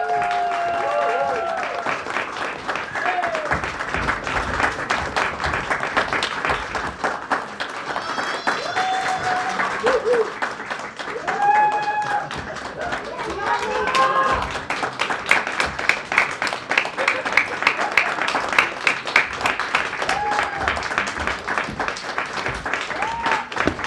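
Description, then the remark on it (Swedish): Sustained audience applause with dense, rapid clapping throughout, growing slightly louder toward the end, with scattered cheers and whoops rising above the clapping, for contestants in a comics and video games category at a competition. “Håll applåden uppe nu”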